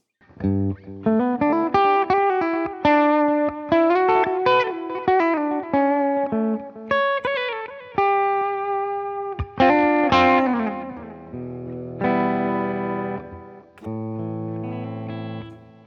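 An amplified instrument played through a delay and a graphic equalizer set slightly louder with the mids boosted, a boost switched on and the chorus off, with loud, harmonically rich notes, quick phrases and chords whose repeats trail off, alone with no talking.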